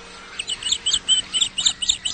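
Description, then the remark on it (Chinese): White egret calls in summer: a steady, rapid run of high, scratchy chirps repeating about every quarter second, fairly loud and overlapping, with no voices present. “这种声音是白鹭的声音，这种很沙哑的声音叫亚鹭。”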